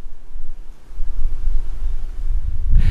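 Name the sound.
wind blowing outdoors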